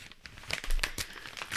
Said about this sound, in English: He's slowly but surely opening a very bad wrapping job I did, and he's getting it.